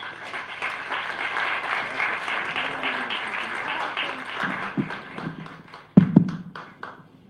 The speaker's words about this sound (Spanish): Así que un fuerte aplauso, por favor.